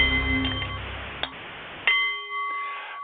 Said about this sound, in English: The Nepalese Meditation Bowl is chiming, centering your mind and delight on the art of the CEO